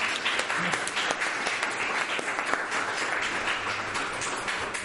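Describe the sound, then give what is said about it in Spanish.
Sustained applause from an audience for a guest speaker before a talk, a dense wash of many hands clapping at steady volume for about five seconds, with no talking over it. “Así que, pues bueno, eh, creo que le tenemos que dar un aplauso independientemente de lo que nos cuente.”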